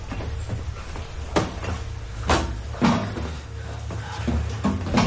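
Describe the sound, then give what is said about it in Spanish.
In the escape hatch chamber of the Kursk submarine, a hammer strikes the hull wall several times at uneven intervals, each sharp metallic knock cutting through a steady low rumble. No one speaks. “Golpea la pared con el martillo.”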